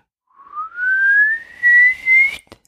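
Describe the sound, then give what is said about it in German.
A person whistles a single note imitating a bird singing up the scale with all notes joined; it glides smoothly upward in pitch for about two seconds, then cuts off with a brief click. Clear and unaccompanied by speech. “Es hörte sich so ein bisschen an, als würde ein Vogel die Tonleiter singen, aber jetzt nicht jeden einzelnen Ton separat, sondern alle Töne verbunden, also so ansteigend, so ich kann so schlecht pfeifen, so”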